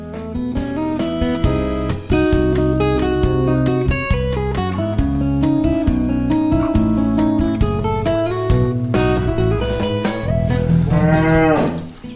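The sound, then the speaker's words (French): Bretonne Pie Noire cows, a small black-and-white breed, moo loudly at a farm, their long, deep bellows overlapping almost without pause for the whole stretch, with one rising, drawn-out call near the end. No one speaks. “La Bretonne Pinoire, c'est la plus petite race de vache en France.”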